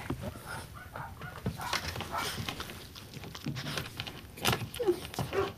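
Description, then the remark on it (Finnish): A small dog, Evo, barks in a run of short, irregular bursts, its yaps breaking into odd, honking, duck-like squawks over a steady jangling, rustling clatter. “Me sanotaan sitä WC-ankaksi, kun se on semmoinen hyvin, hyvin hauska se sen haukkuääni, kun se haukkuu ja siihen tulee kaikki semmoisia niin lisääniä mukaan.”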